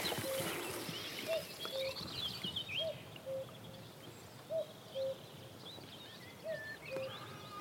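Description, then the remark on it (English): A common cuckoo calls its two-note cu-coo about five times in a steady rhythm, clear, over a bed of high twittering birdsong and soft wind on open moorland on Dartmoor. “we've got a cuckoo calling, and this really is Dartmoor at its best.”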